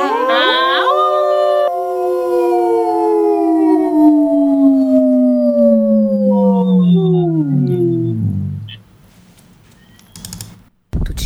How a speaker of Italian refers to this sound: il classico abbaio ululato.